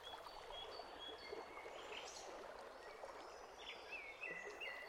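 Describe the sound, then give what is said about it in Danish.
A steady, rushing creek flows continuously while several birds sing and chirp over it, their thin whistled notes and trills scattered throughout, clear against the water's hiss. “ligger sig med trætte, lukkede øjne for at lytte til vandet og fuglene, der synger.”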